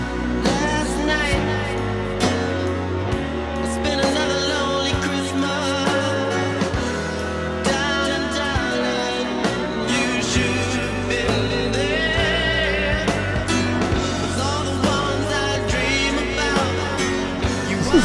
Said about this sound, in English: And this is like the saddest Christmas song I feel like I've ever heard.